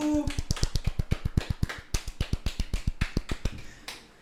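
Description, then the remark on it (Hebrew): Quick, steady hand clapping, about two dozen sharp claps in a rapid even rhythm over three seconds, then it stops. “קיו של כפיים.”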